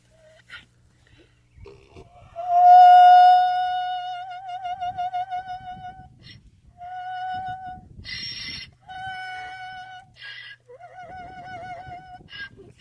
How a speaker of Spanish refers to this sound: Oye, un burro cantando, ¿qué un burro canta? Hasta toca la corneta.